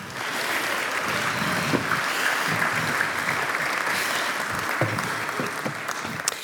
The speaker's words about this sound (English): Okay, go have a seat, you guys. Let's give a round of applause to our kids.